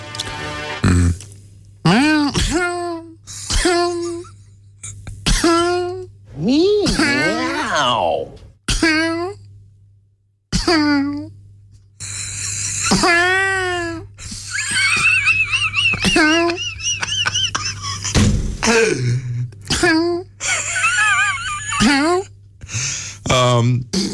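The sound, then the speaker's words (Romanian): A person repeatedly imitates a cat coughing with wheezy, hacking vocal bursts, fairly loud, broken by short pauses and what sounds like giggling. “aș vrea să vedem dacă putem să tușim ca o pisică.”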